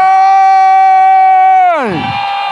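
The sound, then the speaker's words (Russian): An audience shouting in worship: one loud, high voice holds a long sustained cry, then its pitch sags downward as a broad roar of many voices swells up behind it. “Крикни со мной, не умолкай!”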